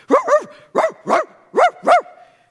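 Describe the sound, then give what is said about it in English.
A dog barks six times in three quick pairs, each bark sharp, with short pauses between the pairs and no voices. “But as she drives in, she's trained her dog to bark whenever the guards would come close to the truck.”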